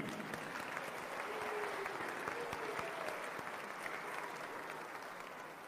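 Steady applause from a group, dense overlapping claps sustained at an even, fairly loud level for several seconds, with a faint murmur of voices underneath.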